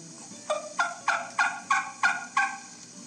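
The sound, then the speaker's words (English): A hen turkey gives a run of seven soft, evenly spaced yelps early in the morning in spring, each a short raspy note, calling alone at a low, steady volume. “And, and that old hen, she'll get up early in the morning. She'll call real low.”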